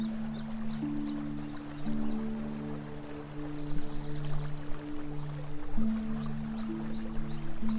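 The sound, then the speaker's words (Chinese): A babbling stream flows continuously with a steady, hissing wash of water, layered over soft sustained low tones that shift pitch slowly like a calm musical drone. No one speaks. “四周的花香、鸟鸣和潺潺的流水声告诉你，现在正是春天，或者已经快到初夏。”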